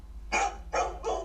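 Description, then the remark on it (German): A dog barks three times in quick succession, sharp and fairly loud, with a faint low hum in the background and no one talking. “Hund,”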